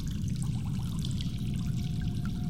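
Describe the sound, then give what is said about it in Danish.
Water trickles and gurgles steadily through sewer pipes with the cover taken off, a continuous low rushing flow with faint bubbling detail on top, with no voices. “Der havde været forstoppelse i, i toiletterne, og der havde dækslet været taget, taget af, og jeg havde fascineret fuld vandets risling gennem alle de her kloakker.”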